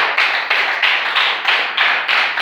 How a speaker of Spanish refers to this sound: ¿Por qué no le doy un buen aplauso al Señor, por favor, esta noche?